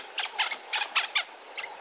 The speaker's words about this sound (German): Oftmals übernehmen aber auch die Honiganzeiger die Initiative und zwitschern aufgeregt, wenn sie in ihrem Revier auf Menschen treffen.